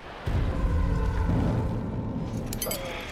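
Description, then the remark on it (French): A surface-to-air missile explosion bursts in suddenly as it hits a plane over the Ural Mountains, then rolls on as a heavy, sustained rumble with crackling debris and metallic rattles, slowly fading over a few seconds. “Ce sont des missiles sol-air. L'avion est touché, il perd de la puissance.”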